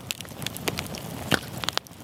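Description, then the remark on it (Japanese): A crackling campfire, with irregular sharp pops and snaps scattered over a steady soft hiss of burning, no voices present. “あなたもこんな音で癒されてみませんかステーキを焼く音川のせせらぎ焚き火の音”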